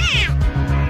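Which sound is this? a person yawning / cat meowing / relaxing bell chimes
cat meowing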